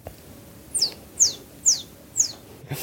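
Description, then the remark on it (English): A person whistles a bird call: four short, high, squeaky chirps, each sliding downward, repeated at a steady pace, fairly clear with no talking. “So when that can do player comes, they always have me do the bird noise, and then they have to like they have to help the player try to find the bird.”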